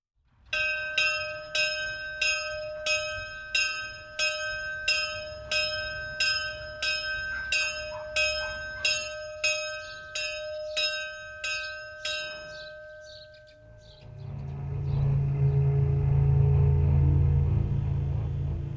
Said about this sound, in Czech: A nezapomeň si nasadit sluchátka. Na nich zní klekání nejlíp.